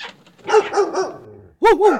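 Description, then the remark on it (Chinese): An old yellow dog barks five times in two quick bursts: three sharp, mid-pitched woofs, a short pause, then two more loud barks close together. “哎呦，墙壁旁边的小洞也突然钻进来了一只老黄狗，哎，看到阿嬷在吃东西，就往阿嬷的脚狠狠地咬了一口。”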